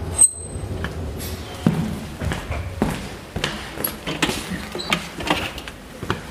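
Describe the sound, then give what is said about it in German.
Elevator doors slide open at floor minus 1 with a run of mechanical clunks and rumbling thuds, preceded by a brief high tone. The sound is fairly loud, with no talking. “Etage minus 1. Türen öffnen.”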